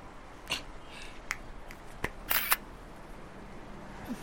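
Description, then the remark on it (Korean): A handful of crisp camera shutter clicks as someone photographs a person's face, irregularly spaced, with a quick double click near the end, against a quiet background with no talking. “내 얼굴은 왜 찍어?”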